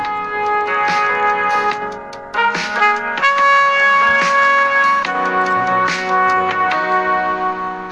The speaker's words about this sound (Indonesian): kita mau ngasih nyetel satu lagu lagi yang lagi hits